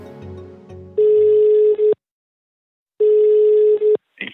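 A telephone ringback tone sounds twice, each a steady buzzy pitch lasting about a second with a pause between, following a brief stretch of low music-like sound at the start, as a call is placed to the head of the criminal police department of Riga's Ķengarags precinct.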